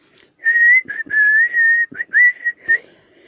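A man whistles a short, clear tune in several sustained phrases with slight pitch slides and brief pauses between them, with no talking around it.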